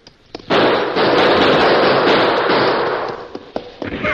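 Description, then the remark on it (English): A loud, dense barrage of rapid gunfire is fired into a cave entrance, roaring for about three seconds, then thinning out into a few scattered, sharp single shots. No one speaks. “Then one of the horses whinnied, which was a signal for them to open fire into the cave entrance.”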